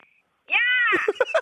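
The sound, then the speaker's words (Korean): A person imitates a seagull cry: a loud, high, nasal wail held for about half a second, followed by a few short, choppy yelps. “다시 한번 갈매기 다시 한 번요.”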